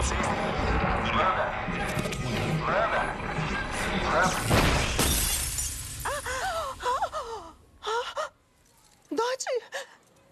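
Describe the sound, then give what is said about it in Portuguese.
A harsh burst of glass shattering as a woman squeezes a glass and breaks it in her hand, amid a noisy, clattering stretch, followed by strained vocal gasps and short cries as the noise drops away. “E aí, por quebrar o rádio, faz o som assim, a mulher aperta o copo, quebra o copo na mão dela.”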